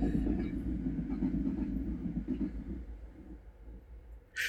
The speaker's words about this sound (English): Nice little train echo.